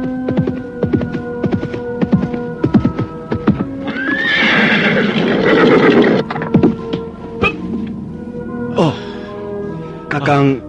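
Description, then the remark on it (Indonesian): Hooves clip-clop steadily as a horse with a rider approaches from afar, then it lets out a loud, shrill neigh. More hoofbeats follow over a low, steady hum. “Ketika dari jauh, nampak seorang penunggang kuda mengampirinya.”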